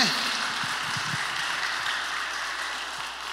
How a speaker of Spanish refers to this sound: Bueno, ¿y cuántos podemos darle un aplauso a todo el equipo que siempre que hace que todo esto sea posible. Todos los líderes de pre.